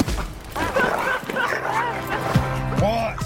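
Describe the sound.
A dog barks and yips excitedly in short bursts, with a few higher whiny notes, while a person talks over the commotion; a scene from the film Dog.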